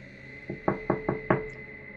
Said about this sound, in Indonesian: Aku mengetuk lagi lebih keras, namun kali ini dengan teriakan.